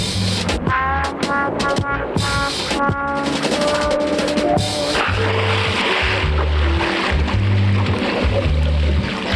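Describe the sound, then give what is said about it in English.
A frogman dives from a great height into water to catch fish, with a loud splash, followed by steady churning and rushing water, while low, pulsing tones and musical notes play underneath. “They live on fish and catch them by diving on them from a great height.”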